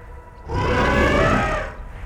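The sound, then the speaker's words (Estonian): A single drawn-out mammoth trumpeting call, loud, rising out of low rumble and holding for over a second with a rich, wavering, plaintive tone before fading. No one speaks. “mammut pasundas taas kuid teistsugusel toonil kui enne. hoolimata heli jubedusest võis selles kuulda teatud kaeblikku nooti.”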